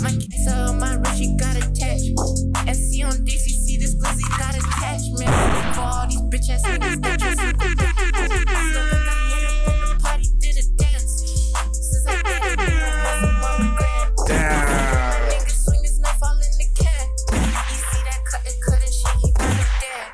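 A loud, bass-heavy rap track plays continuously, punctuated by blaring air horn blasts layered over the beat. No one talks over the music.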